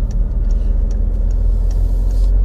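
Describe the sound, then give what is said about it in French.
A motorcycle tailgating on the road rumbles close behind, a loud, steady low drone that fills the whole stretch, with faint regular ticking sounds above it and no one speaking. “Je fais attention parce que j'ai une moto là qui me colle, qui ne connaît pas son code, de la route, j'ai l'impression.”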